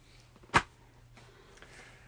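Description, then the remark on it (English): One sharp, loud slap of a hand smacking a leg rings out near the start, then fades quickly into a quiet hum with no talking. “you couldn't tell by the slap of his leg, number nine is also Goldfinger”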